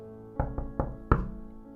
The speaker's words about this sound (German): Plötzlich klopfte es an der Tür.